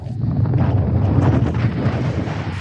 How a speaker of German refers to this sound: Der Wind zerrt an mir. Ich habe das Gefühl, gleich kann ich mich nicht mehr auf den Beinen halten. So crazy.